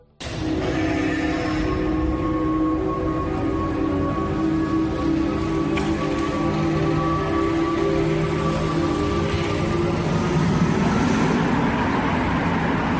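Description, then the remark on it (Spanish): The first of two hydrogen-powered cars runs steadily, a low hum with a faint electric whine over a constant rushing hiss, holding an even, fairly loud level throughout with no voices. “Hemos buscado dos coches que funcionan con hidrógeno para ver realmente ese sonido cómo es.”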